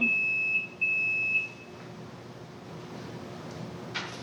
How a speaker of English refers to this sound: That's not the uh, fire alarm. Is that is that your uh, is that your uh, scooter beeping at us? Okay. Yeah, I think your scooter is beeping.